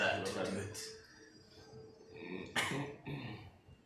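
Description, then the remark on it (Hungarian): A few short, harsh coughs burst out, one pair early and another sharp cough a couple of seconds later, with low murmuring voices underneath. “Tudom, köhög.”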